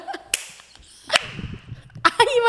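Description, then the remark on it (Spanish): Several loud, sharp hand claps ring out at irregular intervals, each a crisp bright crack, with low background murmur and brief tonal sounds between them. “Me aplaudiste muy fuerte.”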